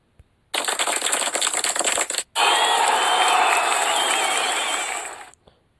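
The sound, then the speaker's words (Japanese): A sound effect of loud applause, a dense crackle of many clapping hands, briefly cutting out before returning with cheering and whistles over continued clapping, then stopping abruptly. “いやいや、もう全然めでたくもないし、拍手もらってもしょうがないんだけど、うん。”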